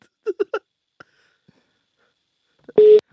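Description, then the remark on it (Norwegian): A telephone busy signal on an unanswered call to a former football player: three quick beeps, a short pause, then a single loud, steady electronic tone near the end, with no talking. “Vi skal ringe en som har spilt mot uh, Javier Mascherano opptil flere ganger, og vi håper at han tar telefonen”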